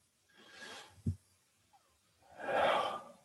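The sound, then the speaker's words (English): A slow, airy deep inhale, a soft bump, then a louder, fuller rush of breath as the air is let out, a deep breath taken to slow the breathing during prayer. No talking. “And if you would, just breathe in deep with me.”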